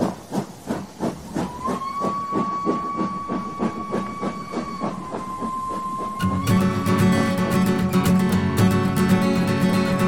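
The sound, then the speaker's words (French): A train's doors close and it sets off with steady rhythmic chuffing and hissing under a sustained whistle tone, then a louder, dense burst of mechanical noise takes over near the end. No one speaks. “Regarde la fermeture des portes, attention au départ.”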